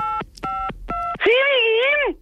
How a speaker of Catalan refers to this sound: Espera, espera. Aquest telèfon nou, espera. No? Ara. Estàs marcant... Aquí estàs trucant, ara.